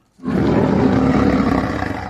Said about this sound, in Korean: 무서운 호랑이 소리입니다.